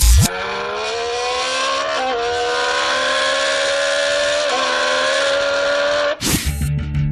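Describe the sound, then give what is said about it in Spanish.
A person vocally imitates a loud racing-car engine: the whine climbs steadily in pitch, dipping briefly twice as if shifting gears, then cuts off abruptly near the end. No talking. “O a lo mejor es alguien que está haciendo el sonido de un, del motor de un coche de carreras.”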